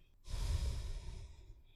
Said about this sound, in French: Expiration, mon, ventre rentre.